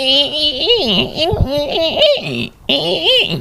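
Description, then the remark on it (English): A person's voice imitates dolphin calls with a continuous run of high, warbling squeaks and chirps, rising and falling in pitch, loud, with one brief pause near the end. “You want to hear my dolphin impersonation?”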